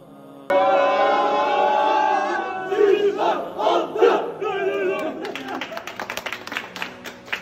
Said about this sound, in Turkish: En son hatta ellerimizi üst üste koyup çığ, nar, altı diye böyle bağırdığımızı herhalde unutamayacağım. Çok güzel anlardı onlar.